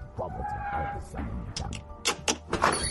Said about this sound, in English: Yeah, yeah, let me unlock the door. Hold on.